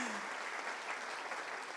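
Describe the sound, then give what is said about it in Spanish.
Audience applause giving glory to God: a dense, steady wash of many hands clapping together, holding at an even, fairly loud level throughout with no pauses or voices standing out. “Ahí es donde usted aplaude y le da gloria a Dios.”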